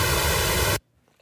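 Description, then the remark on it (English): A steady hiss of comb-filtered pink noise, made by adding pink noise to a time-shifted copy of itself, hollow and slightly pitched from evenly spaced peaks and notches, plays loudly and alone for under a second, then cuts off abruptly into near silence. “That is pink noise and late pink noise, time shifted pink noise added together.”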